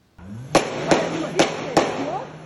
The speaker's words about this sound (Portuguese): Esse vídeo foi gravado por um morador e mostra um tiroteio entre os criminosos e a polícia. Uma viatura tinha pelo menos 20 marcas de tiros.